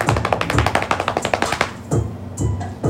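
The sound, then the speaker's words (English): A quick run of sharp taps, a dozen or more in steady rhythm, then a short pause and a few heavier knocks, mimicking a door being slammed. “and the door slam.”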